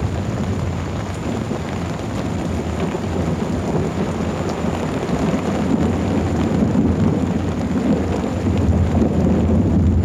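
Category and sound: nature, thunderclap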